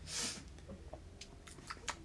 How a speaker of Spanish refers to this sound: Traga. Se ahoga. Está tomando agua.